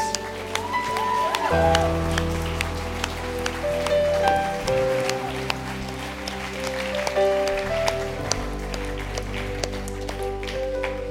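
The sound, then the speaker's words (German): A crowd at a church service applauds steadily over sustained keyboard-style music with low bass chords that change every few seconds, the scattered claps sharp and continuous throughout. “Er gibt den Leuten mal einen richtigen guten Applaus.”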